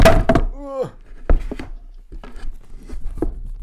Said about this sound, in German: Sorry, mein Mikrofon ist umgefallen.